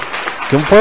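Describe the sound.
A short burst of applause, a dense wash of clapping for about half a second, then a man's voice begins speaking over its fading tail.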